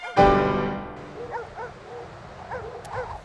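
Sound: dogs barking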